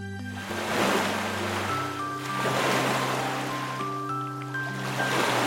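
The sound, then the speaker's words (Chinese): Sea waves roll in and break in repeated hissing surges, swelling about every two seconds, while soft sustained music tones play steadily underneath. “小松鼠推开窗一看，呀，又来到了大海边，浪花唱起了欢乐的歌声。”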